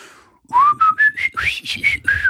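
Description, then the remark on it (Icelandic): A clear whistled solo in a song: about seven or eight bright, sustained notes stepping upward and back, loud, with a soft low backing underneath and no talking. “ég græt eil alltaf þegar ég heyri þetta lag, sko, og það, og, og það er blístur solo í því sem er ekki astanlegt, hæ?”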